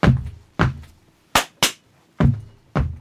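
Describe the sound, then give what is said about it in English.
A rhythmic beat of stamps and claps, six sharp hits with low thumping stamps and brighter hand claps in between, loud with brief silence between each strike. “Sorry, that sounds bad on the microphone there, just stamping and clapping.”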